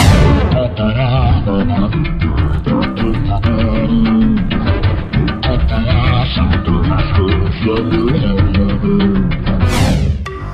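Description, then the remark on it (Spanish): A loud, busy salsa track by a Puerto Rican salsa singer plays throughout, with driving percussion hits and full brass-and-rhythm-section instrumentation filling the sound, continuous, with no talking over it. “Está duro. Es salsa.”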